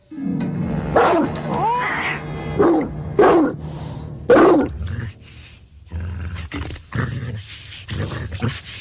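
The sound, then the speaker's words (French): A series of loud dog-like growls and snarls, made by a goldfish in its bowl imitating a dog's growl and driving off a cat, comes in short, rough bursts, then gives way to quieter, lower rumbling growls toward the end. “C'est un poisson rouge qui est dans son bocal et qui met un chat en déroute en imitant le grognement du chien.”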